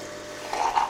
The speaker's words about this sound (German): Aha, der Kaffeeautomat geht wieder.